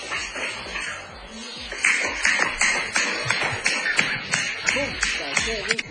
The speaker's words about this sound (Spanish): Salí a correr en chanclas para recordar cómo suena.